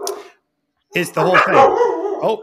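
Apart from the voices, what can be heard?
dogs barking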